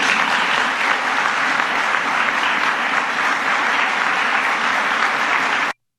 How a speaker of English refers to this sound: It's like they're, like they're giving him a break with the, with the applause. I mean, honestly, I mean, there's nothing to applaud there.